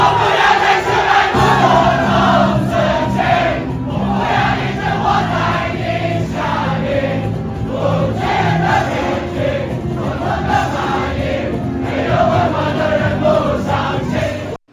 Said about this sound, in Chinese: 好，这一段贵州地铁大合唱，我们来听一下哦。